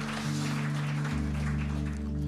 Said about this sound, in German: Ihr dürft gerne wieder runtergehen. Applaus für euch.